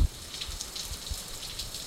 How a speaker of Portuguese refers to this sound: Hoje choveu na Ilha do Sal. A chuva é quase uma benção para os habitantes.